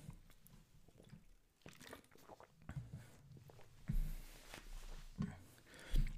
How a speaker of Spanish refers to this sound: voy a tomar agua.